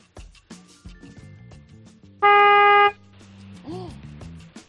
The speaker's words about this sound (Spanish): pues vamos a probar cómo suena ese claxon. Le vamos a dar un toquecito de dos segundos, a ver cómo suena, ¿vale?